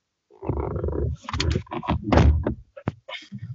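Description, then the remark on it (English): The speaker's door is pushed shut with a series of creaks, rattles and a solid thunk, followed by a couple of softer knocks, all fairly loud. “oh, I just opened my door right now because it was getting kind of hot. Oh, okay. I'll close it.”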